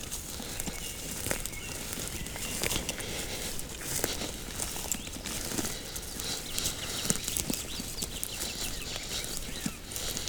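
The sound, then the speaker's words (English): Footsteps crunch steadily through forest undergrowth at dawn as people carrying recording equipment and microphones leave their hides and walk back towards the car, with leaves and twigs crackling underfoot in a continuous walking rhythm. A few faint bird calls sit in the background, and no one speaks. “But we have now left our hides, gathered our equipment and our microphones, and are heading back towards the car.”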